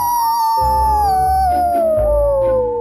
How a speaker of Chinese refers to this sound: 小狼哥忍不住的大声吼叫：“啊呜！”